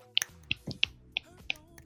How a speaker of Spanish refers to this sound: Estoy aplaudiendo con una mano. El ruido escuchado que escucharon como perturbador de mm, como de cuando esté pegando la carne para poder ablandarla.